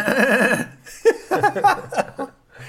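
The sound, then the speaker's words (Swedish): A horse whinnies with a shaky, quavering call lasting about half a second, followed by several short choppy bursts of sound, all somewhat thin, played from a tape recorder. “Hästljud? Bandinspelare.”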